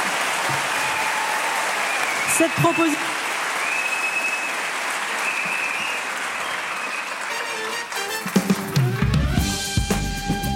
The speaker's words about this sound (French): Alors par applaudissement, qui est contre On a quatre sénateurs dans la salle. C'est fou. Et par applaudissement, qui est pour euh, ah oui.